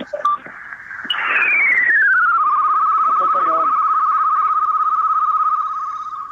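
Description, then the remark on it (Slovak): A loud high-frequency radio signal whistle from a radio receiver with an antenna, being tuned in, glides downward in pitch, then settles into a steady tone with a fast pulsing flutter that holds for several seconds before easing off slightly. “Vysokofrekvenčný no, signál.”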